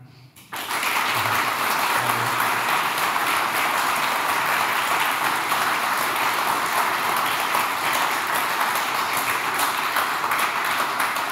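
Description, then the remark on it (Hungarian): Sustained applause from a large audience for the representatives at the end of a debate organized by Partizán, starting abruptly and holding steady, a dense, loud wash of clapping with no break and no voices. “Egy nagy tapsot szeretnék én a közönség részéről mindegyik képviselőtnek.”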